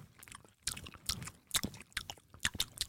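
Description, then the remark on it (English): Wet chewing of Extra white chewing gum, with soft squishy smacks and clicks in an irregular rhythm, about six bursts over a few seconds, quiet overall with no talking. “Now, what you're hearing is the chewing gum.”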